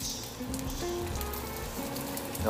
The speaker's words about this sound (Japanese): あいい色きたきたこれこれこんな感じでゆっくりじっくり焼くんじゃねえなフライしていきましょうディープフライでフライパンに軽くこう浅く油を引いてやってるんですが